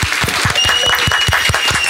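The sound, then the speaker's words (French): An audience applauds with a dense, steady patter of many hands clapping at once, loud and sustained throughout with no talking over it. “un applaudissements du public!”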